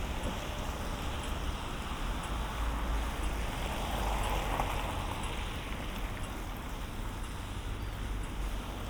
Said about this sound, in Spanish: A mano izquierda tenemos el semáforo, escuchamos el tintineo de, que está en rojo. Bicicletas pasan por delante y coches. Sigue pasando coches.